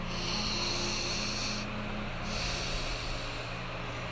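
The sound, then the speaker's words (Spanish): A voice imitates a person's long, loud, angry sigh-like breathing: one forceful, breathy exhale that holds steady for about four seconds, with no words spoken. “mi mamá agacha la cabeza viendo hacia la mesa y empezó a respirar de una forma así como un suspiro muy largo y muy fuerte, como si escucharan una persona enojada, no sé cómo decirles, pero fue así de...”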